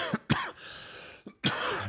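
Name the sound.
cough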